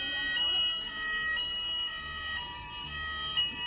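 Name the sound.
alarm going off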